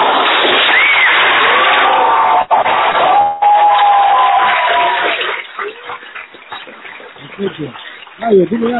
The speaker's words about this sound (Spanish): Un aplauso.